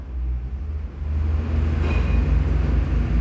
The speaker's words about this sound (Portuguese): Eita porra que sai do caralho. Esse caminhão.